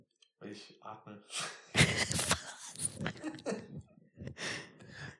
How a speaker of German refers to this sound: Oh, ich, ich hätte vielleicht das Mikro an den Mund nehmen sollen, als ich geredet habe, weil ich atme so. Deswegen.